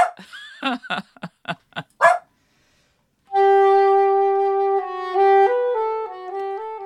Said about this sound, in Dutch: Ik heb het dan over echt een verscheidenheid aan gedragingen. Zoals blaffen.